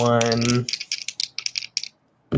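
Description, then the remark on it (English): After a brief voice, dice rolled for attacks in a game clatter and roll in a quick burst of sharp, bright clicks for over a second, then settle into quiet. “Uh, let me use two of the dice that didn't roll that”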